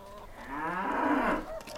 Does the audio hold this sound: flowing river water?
no